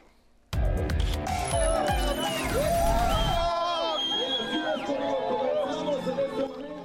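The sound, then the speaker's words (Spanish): A large crowd of thousands of people dressed as Santa Claus erupts into loud cheering and whooping as they set off running in the fifth edition of the Santa race in Mexico City, with overlapping excited voices and shouts sustained throughout. “Son sonidos del momento en el que miles de personas vestidas de Santa Claus salen corriendo en la Ciudad de México.”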